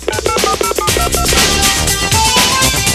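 A quick run of touch-tone beeps as a phone number is punched in, each key a short, clear tone, before loud upbeat music swells in and takes over.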